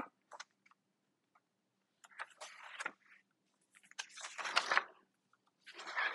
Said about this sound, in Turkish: Kağıt seslerini.